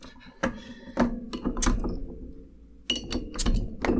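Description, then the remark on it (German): A beer bottle with a crimped cap rather than a swing-top is handled and opened: several sharp glassy clinks and knocks, then a brief airy hiss as the cap releases, followed by more clinking. “Heute haben wir nur äh, einen Zischer.”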